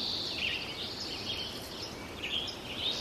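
Sparse birdsong drifts over a steady outdoor hiss, with a few faint high chirps scattered across an otherwise quiet field recording at Sugarloaf. No voices are present.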